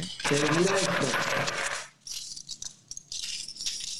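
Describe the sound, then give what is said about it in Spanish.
Gold-coloured coins, like dollars, clink and jingle as they are handled, a dense burst of bright rattling first, then lighter scattered clinks, with faint voice-like sound mixed in. “claro, monedas doradas.”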